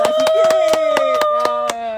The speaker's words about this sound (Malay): So, tapi sebelum tu, kita bagilah tepuk tangan sikit.